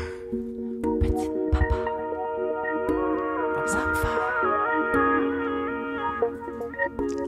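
A song plays loudly and steadily, with sustained melodic tones over a punchy beat and rap vocals riding on top.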